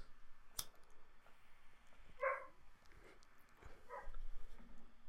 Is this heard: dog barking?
yes